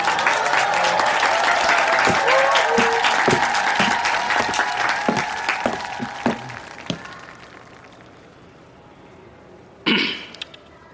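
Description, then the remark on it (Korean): An audience of students claps steadily for about seven seconds to welcome a graduate introduced by a professor, a dense crackle of many hands that gradually thins and fades out, followed by a short throat-clearing near the end. “박수로 맞이해 주세요.”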